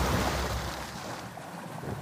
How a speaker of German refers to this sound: Ein Beiboot wird von der Reling herabgelassen und schaukelt auf dem Wasser.